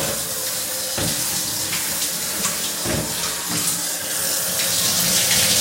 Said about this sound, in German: So, jetzt lasse ich mich einfach mal ein bisschen vom Wasser berieseln. stelle mich jetzt runter.